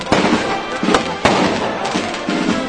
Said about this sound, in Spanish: Momento en el que los fuegos artificiales hacen acto de presencia.